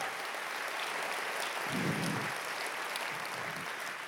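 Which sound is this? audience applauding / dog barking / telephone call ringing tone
audience applauding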